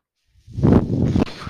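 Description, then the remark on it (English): A person's breathing ventilator runs, giving one airy, rushing pump cycle that swells in and holds for about a second, with no one talking. “That noise you're hearing is my ventilator.”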